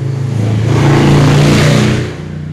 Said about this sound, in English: Like, what was the purpose in that, you asshole? Excuse yes, me. Yes, I want the loudest motorcycle you have on the lot. Seriously, like, that was so ignorant.